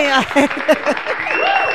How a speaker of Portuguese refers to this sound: Aê! Palmas pra mim!